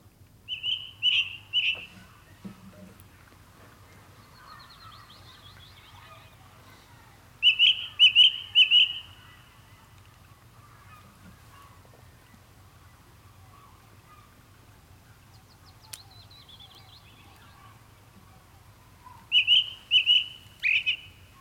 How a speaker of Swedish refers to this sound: Ja, den har en mycket enkel och kännspak sång, den här ringtrasten. Ja, fast man hör den nog inte här i södra Finland.